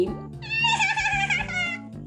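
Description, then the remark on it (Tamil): A person's voice imitates a lamb's bleat: one drawn-out, wavering, nasal 'baa' lasting about two seconds, fairly loud and with no other sounds around it. “ஆனா இப்போ என்ன காத்துட்டு இருந்தது இந்த சவுக்கு மரத்துக்கு அதை தேடி ஆட்டுக்குட்டி”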